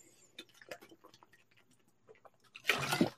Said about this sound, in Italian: Bevuto acqua.